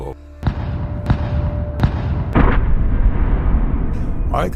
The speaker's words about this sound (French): J'entendais les canons qui nous bombardaient sur la côte.